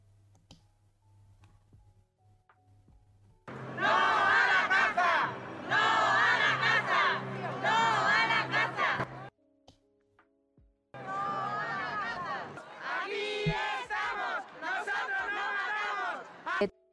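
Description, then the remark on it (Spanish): A protest crowd against hunting chants loudly in rhythmic, repeated bursts, with two long stretches of shouting separated by a brief pause. “pero creo que todos los demás han estado en su ciudad en alguna de estas protestas, ¿no?”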